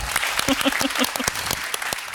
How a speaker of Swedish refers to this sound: En applåd för det, tycker jag.